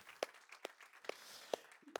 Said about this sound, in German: Und wir möchten diesen Menschen bitte sehr gemeinsam einen Liebesgruß schicken und einen kurzen Applaus geben. Ist das okay? Wunderbar.